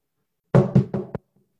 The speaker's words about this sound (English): knocking on the door, walking in